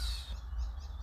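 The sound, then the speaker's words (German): Faint, high-pitched bird chirps twitter in the background over a low outdoor rumble, outdoors at about 19 degrees, soft and continuous with no one speaking. “Ihr hört, ihr hört die Vögel bestimmt im Hintergrund.”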